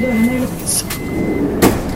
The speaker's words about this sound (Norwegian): Hva var det for noe? Nei, det var bare T-banen.